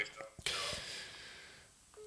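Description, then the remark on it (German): Short electronic beeps from a mobile phone's keypad as the phone is being switched off, a few brief clear tones with a soft rustle of handling between them and no talking. “Oh, jetzt mache ich das Handy aus, oder?”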